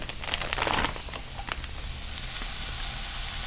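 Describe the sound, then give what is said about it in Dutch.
500 grams of minced meat hits a hot pan and sizzles loudly, with a burst of crackling and a few sharp pops at the start, then settling into a steady, hissing fry. “Ik ga uh, eh, 500 gram gehakt hierin doen.”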